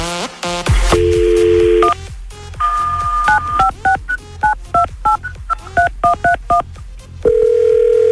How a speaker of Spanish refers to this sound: Estamos listos para marcar.